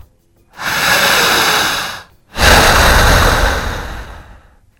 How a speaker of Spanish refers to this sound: ¿Por qué la respiración? Ahí le va. Esta respiración lenta, larga, fuerte y profunda genera una sobreoxigenación del torrente de sangre.